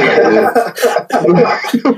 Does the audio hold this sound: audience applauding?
no